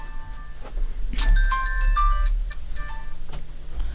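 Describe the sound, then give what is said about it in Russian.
A telephone rings with an electronic melodic tone, a short run of bright, high beeping notes at shifting pitches repeating over a low steady hum, with no one speaking. “Сейчас все вот мамы, особенно те, которые вот г- груднички, они с- понимают, насколько важен здоровый детский сон, потому что во время сна у нас телефонный звонок.”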